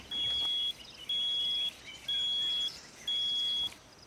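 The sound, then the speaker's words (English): Four steady, high-pitched electronic beeps, each about half a second, repeat at a regular one-second pace over faint background noise, with no voices; the beep is triggered by a rat trained to sniff container air vents, signalling to the trainer a positive wildlife-product sample. “So the beep sound is feedback to the trainer to indicate that the rat have shown that this is positive and if it's correct then the trainer click and the rat get the food reward.”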